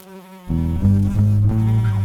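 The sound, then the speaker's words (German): A loud, droning bee buzz swells in after a brief thin hum, its harmonic tone wavering slightly as it drones on steadily for about two seconds, a short sound-effect sting introducing a bee quiz. “Das Bienenquiz.”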